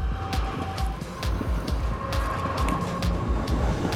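A train pulling away: a steady low rumble with irregular metallic clacks over the wheels and a thin, sustained squealing tone running through it, no voices.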